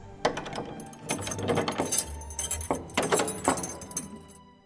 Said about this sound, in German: zieht die letzte Tür zu und verschließt sie mit dem großen silbernen Schlüssel, der schon immer im Besitz der Familie ist und dort bleiben wird.